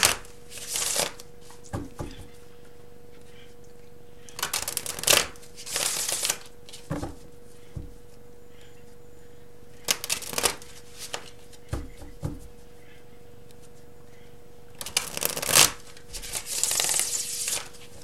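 A deck of tarot cards shuffled in several quick, crisp riffling bursts, separated by short quiet pauses, with a few soft taps and slides of cards in between and no talking, while a card is drawn for a Capricorn money reading.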